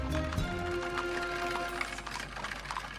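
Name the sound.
horse-drawn cart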